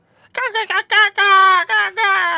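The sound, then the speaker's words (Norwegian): A person vocally imitates a hippogriff call: a string of about six high, strained, tonal squawks, the first few short and choppy, then longer drawn-out cries, loud. “Hippogriff hvordan høres den ut?”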